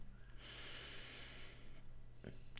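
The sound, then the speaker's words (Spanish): A single slow, deep breath drawn in through the nose during a breathing exercise, soft and airy, lasting about a second, then quiet with a faint brief click near the end. “Vamos a empezar inhalando por la nariz contando hasta cuatro. respirando suave y profundamente.”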